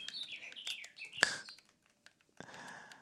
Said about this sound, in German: Nein, das ist ähm, unsere Uhr. Das ist also- unsere Zwitscheruhr, falls ihr die hört.